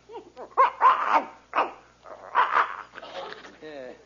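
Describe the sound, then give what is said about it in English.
A dog wagging its tail lets out several short barks in quick bursts, then trails off into a high, wavering whimper near the end. “The dog's wagging his tail.”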